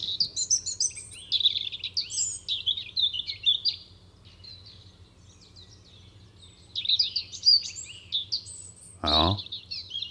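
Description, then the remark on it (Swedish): A European robin, a small and rather frail bird, sings its high, thin, sparkling song in bursts of rapid twittering phrases, with a pause mid-clip, over a low steady background hum and a brief sharp knock near the end. “Och just den här spröda, högtonade sången så passar så fint in med rödhakens personlighet också.”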